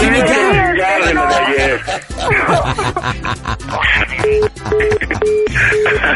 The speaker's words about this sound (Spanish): Uy, creo que colgó, carnal. Me colgó. el teléfono.